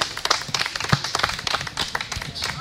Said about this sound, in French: on peut les applaudir très fort parce qu'ils ont vraiment bien travaillé.